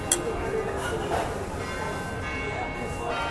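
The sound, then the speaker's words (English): A town hall clock bell in Brisbane rings out with a sustained, humming tone, heard from the 16 Antlers rooftop bar on a hotel, over a steady background murmur, with a faint voice underneath. “You guys can guess what time we're recording this by listening to the town hall clock.”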